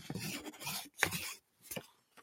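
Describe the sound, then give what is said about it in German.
A pen scratches across paper, crossing an item off a list: one long drawn-out stroke, then a couple of shorter, quicker strikes and a tiny final tick. Crisp and quiet, with no talking. “kann ich das von der von der Liste streichen. Warte, ich mache ja. das so ASMR-mäßig.”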